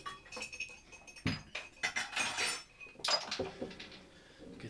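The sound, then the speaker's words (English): Glassware clinks and rattles in a basement in a short flurry of bright, irregular taps and knocks as a glass is fetched, as if glasses are being shuffled and lifted from a shelf, with no talking. “Let me get a glass to dump out.”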